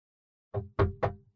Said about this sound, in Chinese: 突然响起了敲门声。